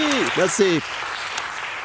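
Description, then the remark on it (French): A short burst of steady applause for a correct quiz answer, a dense, even crackle of many hands clapping, with a few voiced whoops or cheers rising over it in the first moment before the clapping carries on alone. “Les gars, on applaudit.”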